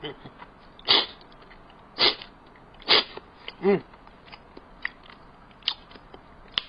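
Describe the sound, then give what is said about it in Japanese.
Several short, bright bursts of mouth noise, like hoya somen noodles being slurped and chewed, come in an uneven rhythm. Between them a voice murmurs briefly, as if imitating the eating. “うん、いただいてみますよ。”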